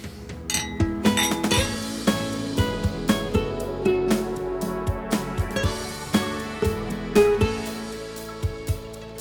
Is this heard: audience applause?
no